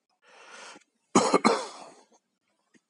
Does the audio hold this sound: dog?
no